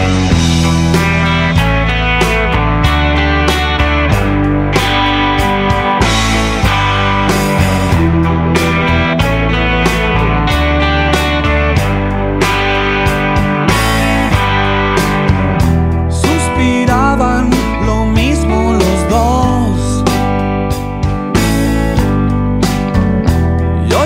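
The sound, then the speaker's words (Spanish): A romantic rock song plays loud for the whole stretch on the radio program La Milagrosa, with steady drums, sustained guitar and keyboard chords, and a full band sound; no one talks over it. “mira, voy a, voy a poner un tema muy lindo, un tema bastante bello.”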